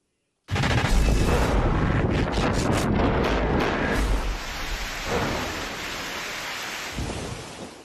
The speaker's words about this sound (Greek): ξαφνικό μπουρίνι έχει παρασύρει τα πάντα στο πέρασμά του στο χωριό Γιάλοβα τη Μεσσηνία. Σε αρκετέ περιοχέ τη Ελλάδα η κακοκαιρία Τζένεση δείχνει τα δόντια τη.